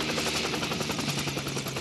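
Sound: helicopter approaching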